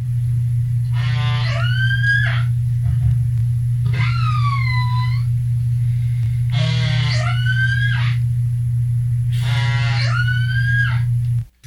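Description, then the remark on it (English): Four killer whale (orca) calls, a toothed whale of the dolphin family, each a squealing, harmonic-rich whistle that rises and bends in pitch, repeating every few seconds over a steady low hum. “That is a killer whale, or also known as an orca and it's a toothed whale, and it belongs to the dolphin family, only they are much, much bigger than dolphins, of course.”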